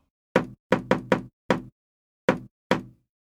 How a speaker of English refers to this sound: She rapped on the door.